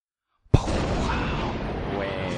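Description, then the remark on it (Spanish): After a moment of silence, a sudden loud explosion sound effect bursts in, followed by a sustained roaring rumble that continues steadily to the end. “Poné un efecto de explosión ahí.”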